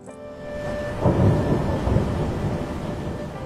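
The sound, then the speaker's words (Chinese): A deep, rolling rumble of thunder swells up after a brief moment and keeps growling heavily, with a steady rain-like hiss beneath it and no voices. “轰隆隆的雷声突兀地响起来。”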